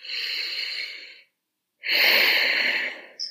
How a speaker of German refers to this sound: Oder äh, es tut so gut, wenn man einfach mal so wirklich das ausschnauft.